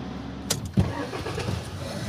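A heavy mining machine runs deep underground in a mine with a steady low rumble and hum, broken by a brief sharp clank and a deeper thump as the machine works, with no one talking.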